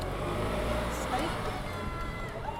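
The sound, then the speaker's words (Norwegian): A small car's engine hums steadily as it drives around, a continuous low rumble with shifting tones and faint voices mixed in underneath. “da kjører vi rundt i en sånn en liten bil.”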